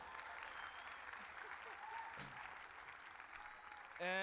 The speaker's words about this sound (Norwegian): Det må lage bråk, kun støy. Sammenhengende. Én, to, tre, kjør på! applaus.